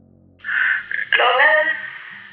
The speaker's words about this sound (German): als ein Funkgerät ein Geräusch von sich gibt. Weißes Rauschen.